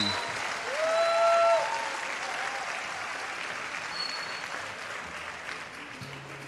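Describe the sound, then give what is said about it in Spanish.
Sustained ovation from a theater audience as a singer walks onto the stage, a dense, steady wash of clapping that swells early and then holds at an even level, with a few faint whistles or tones cutting through. “Acaba de ingresar … al escenario con otra ovación.”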